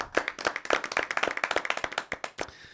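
Brisk applause from a small group, a quick run of sharp, crisp hand claps at fairly steady volume that ends abruptly, with no voices.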